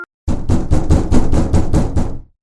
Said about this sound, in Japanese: 今度は玄関のドアから、すごい音が始まった。